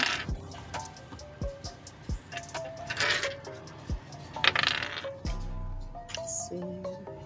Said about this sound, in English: Oh, I forgot to grab my dice. Hold on.